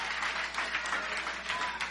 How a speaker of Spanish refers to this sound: Déselo fuerte el aplauso Give a él. It to him louder, stronger, better.